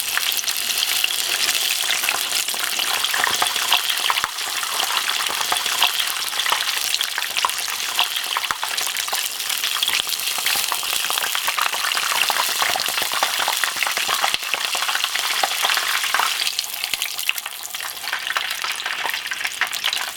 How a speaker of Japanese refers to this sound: 目覚めのいいね今朝は揚げ出し豆腐のおいしい音色